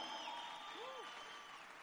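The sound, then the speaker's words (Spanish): An audience applauds in a steady, continuous wash of clapping, fairly soft, with a few faint whistle-like tones gliding through the noise. “Un gran aplauso para Luigi Melo”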